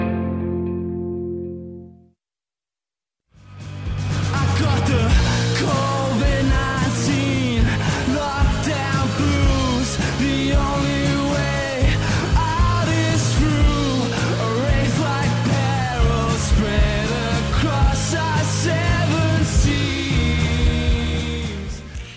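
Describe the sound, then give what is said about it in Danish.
After a brief fading tone and a moment of silence, a full band kicks in loud and steady, with a singer's voice carrying the melody over drums, bass and guitars, in a song about covid-19 lockdown blues made during the country's spring lockdown. “Sådan synger … her på en øh, sang, som blev til faktisk i forårets øh, nedlukning af landet”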